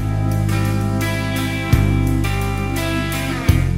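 Rock band music plays steadily and loudly with no voices, dense sustained guitar chords over a driving low end, punctuated by sharp drum hits roughly every couple of seconds.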